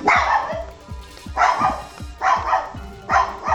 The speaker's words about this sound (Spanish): ¿Te has preguntado qué dice tu perro cuando ladra?